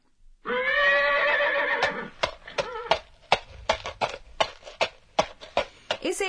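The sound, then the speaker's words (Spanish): A horse whinnies loudly, then hooves clip-clop at a steady walking pace, a series of sharp knocks continuing to the end. “es el sonido de un caballo caminando.”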